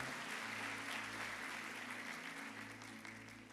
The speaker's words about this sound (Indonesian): Berapa yang diberkati oleh worship hari ini boleh tepuk tangan yang paling dahsyat buat Tuhan.